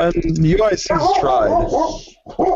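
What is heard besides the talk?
dog barking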